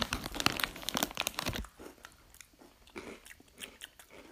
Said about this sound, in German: Sorry echt für jetzt für die Schmatzgeräusche, aber schmeckt ein bisschen nach Nutella.